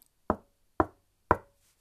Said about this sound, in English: She saw a house and knocked at the door.